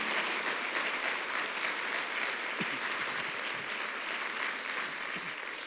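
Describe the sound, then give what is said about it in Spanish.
Sustained applause from a church audience, given to the King of Kings and Lord of Lords, fills the whole stretch: a dense, steady wash of many hands clapping at an even loudness with no voices breaking through. “Cuéntale un aplauso al Rey de Reyes y al Señor de los Señores.”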